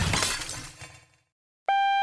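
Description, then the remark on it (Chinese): A loud car crash after emergency braking: a crunching impact and shattering glass decay over about a second into silence, then a steady high-pitched ringing tone abruptly starts and holds. “妻子发生了车祸之后，他就被送来我服务的这间医院。”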